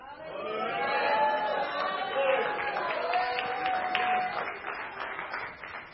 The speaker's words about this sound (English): Come on, let's give God a loud praise.